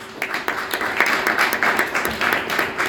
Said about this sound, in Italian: con un altro bel applauso